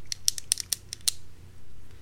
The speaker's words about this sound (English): I'm going to ask yeah. you to do me a favor. Can you stop clicking your pen?